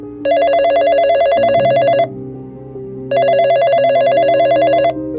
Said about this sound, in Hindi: 10 जून 2002 रोज की तरह doctor A P J Abdul Kalam Anna university में अपना लेक्चर ले रहे थे उनके कमरे के फोन की घंटी लगातार बज रही थी